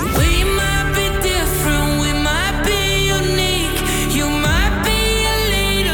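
A loud, full rock recording by an Irish band plays continuously, its guitar intro with sustained, bright guitar tones ringing over a steady low bass and drums. Short pitch glides and shifting chords move through the music; no one talks over it.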